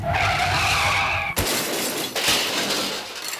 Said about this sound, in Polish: A ten sygnał ma zwiastować e, w podcaście niespodziewany zwrot akcji i parę zapowiedzi.